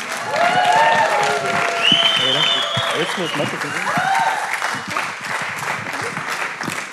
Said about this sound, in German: Dann lasst uns mal David einen großen Applaus geben.